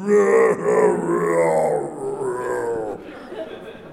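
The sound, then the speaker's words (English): A voice imitates a long wailing cry of someone wailing at the sky, rising and falling in drawn-out, moaning swells for several seconds, fairly loud before trailing off. “I couldn't stop doing because he's just wailing at the sky, you know.”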